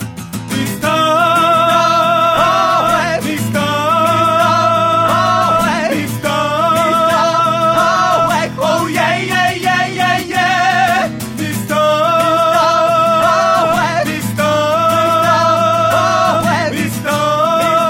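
A loud, driving instrumental theme tune plays continuously, with heavy bass, bright sustained melody lines and a repeating sectioned structure, and no voices over it.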